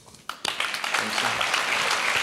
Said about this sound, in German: Vielen Dank, dass du mit deinem Team ehrenamtlich mehr Gas gibst. Das ist dein Applaus.